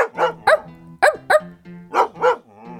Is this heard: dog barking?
yes